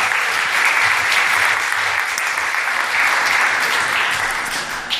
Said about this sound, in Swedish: Så ni kan väl ge dem en applåd medan de också kommer fram här.